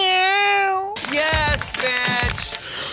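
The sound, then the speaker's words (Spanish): A loud, drawn-out meow rings out, followed by a few more whiny, wavering cries from a female cat over a rough, noisy background. “Eh, yes, Eso, gata micho micho.”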